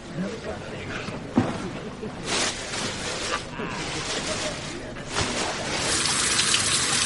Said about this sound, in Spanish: Al poco se da una ducha. Mantiene los ojos cerrados mientras el agua le moja la cara. Después apoya la cabeza en una de las paredes de la ducha mientras el agua sigue cayendo.